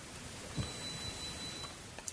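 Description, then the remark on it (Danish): A faint, thin high-pitched electronic tone from a building alarm system, with someone standing outside at the alarm, holds steady for just over a second against quiet room noise with no one talking. “Men fanden, nej, nu står der en derude ved øh, alarmen sikkert.”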